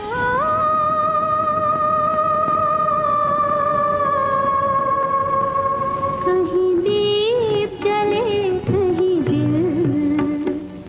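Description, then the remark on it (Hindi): An eerie old film song: a long, high, wavering sung note held for several seconds, then shifting into a slower melodic phrase over soft, hazy accompaniment, steady and fairly loud throughout. “यार देखो आज भी रात के अकेलेपन में इस गाने को सुन के ना गूज बम्स आ जाते हैं रोंगटे खड़े हो जाते हैं मेरे भी हो गए”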